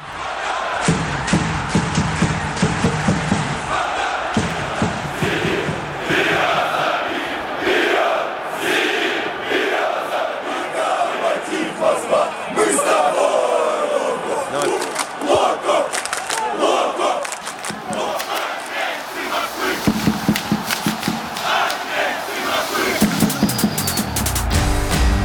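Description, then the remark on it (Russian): A large stadium crowd of football fans chants a simple, neutral, short rhythmic chant in unison to support the team, loud and sustained, with repeated shouted bursts echoing across the stands for the whole stretch. “Эти короткие заряды универсальны. Их скандируют, чтобы поддержать команду.”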